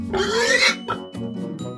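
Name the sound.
pig grunting and oinking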